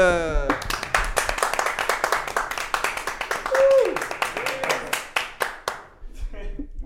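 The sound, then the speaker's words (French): A burst of clapping and applause for an arriving guest, dense and lively, with cheering voices and a short whistle rising over it before it tapers off near the end. “Faites du bruit pour”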